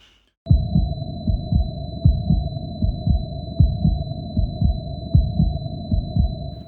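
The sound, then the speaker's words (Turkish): A deep, steady heartbeat thumps in a regular rhythm beneath a sustained high-pitched ear-ringing tone, the low-health warning sound of World War II shooter games like Battlefield and Call of Duty, signalling the player's health is very low, with no talking. “Dünya Savaşı, Battlefield, Call of Duty tarzı oyunlardaki oyuncunun canı çok azaldığında e, duyulan o kulak çınlama sesi ve yine kalp atış sesi hani canın çok azaldı saklan, saklanman gerekiyor.”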